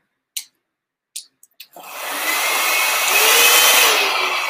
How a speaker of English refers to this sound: So if I place the balloon on top of the dryer, well, it pushes upwards. And if I increase the pressure, it goes up.